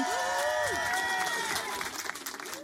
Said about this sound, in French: Applaudissements pour lui.